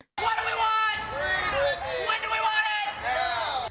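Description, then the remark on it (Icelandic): A crowd of protesters supporting Britney Spears shouts the slogan "Free Britney" in unison, loud and continuous, with voices rising in rhythmic, pitched bursts of chanting and cheering. “Frelsum Brittany hrópar þessi hópur mótmælenda.”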